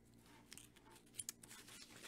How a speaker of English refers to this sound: paper turning.